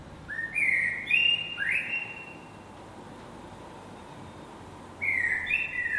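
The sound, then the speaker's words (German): A blackbird sings fluting, whistled phrases at dawn in two bursts, a pause between them, clear over a soft steady background hush, with no voices. “Er öffnet das Fenster und genau in diesem Moment beginnt das Konzert. Die Amsel zuerst.”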